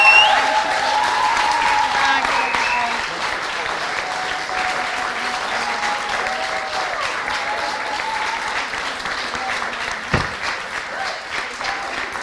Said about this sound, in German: also erstmal großen Applaus an Karima